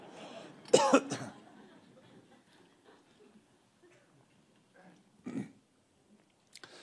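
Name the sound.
throat clearing and coughing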